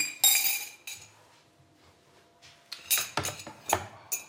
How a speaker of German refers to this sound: So, jetzt erstmal meine Tasse und mein Löffel, denn jetzt wird Kaffee getrunken.